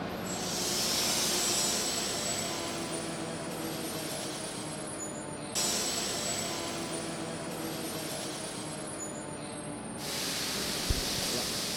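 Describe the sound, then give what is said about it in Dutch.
A train is slowly brought into a workshop and set at a specific spot marked on the track, a steady rumble with metallic hiss and faint wheel squeal, changing tone in a few abrupt steps as it moves; no one speaks. “Eh, de trein wordt nu binnengebracht.”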